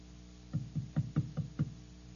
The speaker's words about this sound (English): The last man on earth sat alone in a room. And then there was a knock on the door.